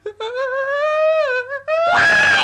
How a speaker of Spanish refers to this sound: es el chillido que escucho a la puerta? Del viento es el ruido.